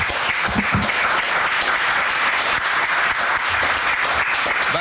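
Sustained applause from a crowd at a Gazeta Wyborcza debate, a dense, steady patter of many hands clapping at an even loudness for the whole stretch, with a few faint voices mixed in.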